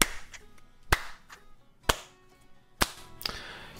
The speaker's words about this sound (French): Il y en a un qui était en haut des escaliers qui commence à applaudir comme ça.